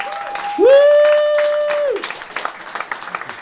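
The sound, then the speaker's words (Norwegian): A crowd applauds with dense, rapid clapping throughout, while a loud sustained whistle or cheer with a steady tone rises over it for about a second and a half before the clapping thins out. “Uh, eh, men nå Eh, kan alle slenge sammen lankene og gi en applaus”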